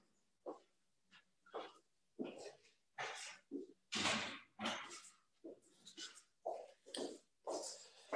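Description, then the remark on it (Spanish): A restless female pet dog, put out in the garden, barks over and over in short, sharp bursts at an uneven pace, with brief pauses between barks. It sounds somewhat muffled, from outdoors. “En un minuto voy a cerrar la puerta porque mi perrita es muy inquieta y la tuve que sacar al jardín.”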